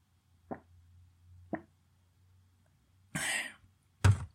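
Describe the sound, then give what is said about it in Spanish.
Someone drinks water: two soft gulps about a second apart, then a breathy exhale and a sharp little throat sound at the end. “A ver, espera, voy a tomar agua.”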